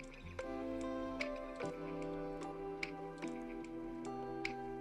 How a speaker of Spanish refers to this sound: Ya tenemos la estufa encendida, vamos a proceder a poner el agua. Yo la tenía ya algo calientita para que pues, hirviera más rápido.